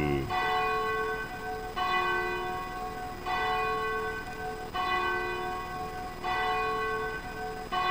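signal or alarm, cathedral church bell ringing

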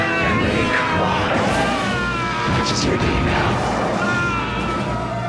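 human body sound, man screaming

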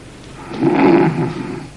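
human body sound, man snoring

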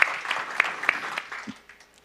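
crowd, audience applauding

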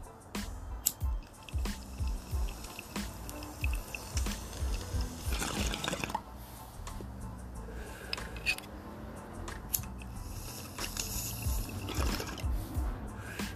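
bong hit

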